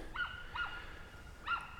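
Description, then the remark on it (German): Ducks at a lake quack three times in short, nasal bursts while feeding, two close together and one after a pause, against a soft outdoor background with no talking. “Also wenn man ganz genau hinhört, ähm, dann hört man das, glaube ich, wie die Enten schnattern und quackern und essen und fressen.”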